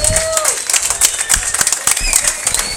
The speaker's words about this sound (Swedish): Stor applåd tycker jag.